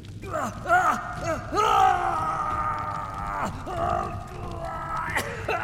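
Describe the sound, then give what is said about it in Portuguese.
An old man cries out in agony after a lantern explodes in his face and sets his beard and face on fire, a series of loud, strained, wavering howls and groans that rise and fall in pitch, continuous for several seconds with brief catches of breath. “O velho grita em agonia.”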